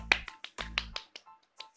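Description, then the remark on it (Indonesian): A quick burst of hand clapping in salute to Persija Jakarta player Ismet Sofian: about ten sharp, crisp claps in a slightly uneven rhythm, strong at first and then trailing off into softer ones, with no voices. “salut lah sama Ismet Sofian umurnya udah 39 tahun masih masih bisa menembus first team di tim sekelas Persija Jakarta salut tepuk tangan dong tepuk tangan”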